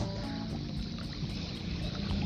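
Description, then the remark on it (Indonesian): Steady seaside ambience with fairly calm waves and little wind: a continuous wash of lapping water over a low, rumbling background, even in loudness, with no voices. “salam dari tepi laut ya kalau mungkin aku ngeteknya sering-sering di sini aku akan menggunakan tagline salam dari tepi laut.”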